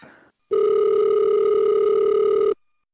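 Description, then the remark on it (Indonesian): A steady telephone ringback tone sounds for about two seconds as a phone call is placed, a loud continuous electronic hum with a strong mid-pitched tone, starting abruptly after a brief burst of noise and cutting off cleanly. “apa udah bisa ditelepon kita telepon ah, dulu alhamdulillah ini cara ngangkat telepon tuh wah”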